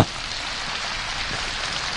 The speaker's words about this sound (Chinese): 好，给他掌声鼓励一下哈。